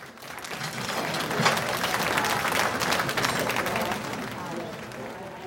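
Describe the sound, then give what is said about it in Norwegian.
Audience applause at a beach restaurant in Norway as an international celebrity arrives before the public and press: a dense, sustained wash of many hands clapping at once, steady and fairly loud for several seconds before thinning out, with a murmur of crowd voices mixed in. “Alle festet blikket på inngangen der den internasjonale kjendisen snart skulle vise seg, og like etter brøt applausen løs.”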